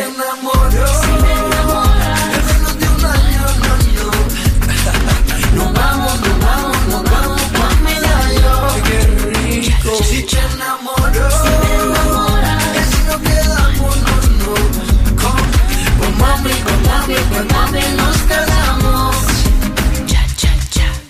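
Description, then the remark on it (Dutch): A loud, densely produced new pop single plays throughout, a female lead singer backed by a choir over driving beat and bass, with a brief drop about halfway before the full band returns. “die gaat een nieuwe single, oh. of een nieuwe videoclip, die komt op MTV. Het klinkt een beetje zo.”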